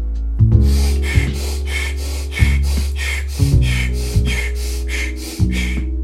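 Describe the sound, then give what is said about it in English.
Rapid, forceful breaths puff in a steady rhythm during a guided controlled-breathing exercise, the pace building, about a dozen sharp exhalations layered over a low sustained music bed with no talking. “Controlled breathing.”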